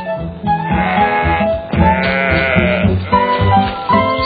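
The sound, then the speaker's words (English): Sheep bleat loudly, several wavering calls overlapping one after another over a few seconds while one eats grass, with no one speaking. “Wow, Grandma, sheep!”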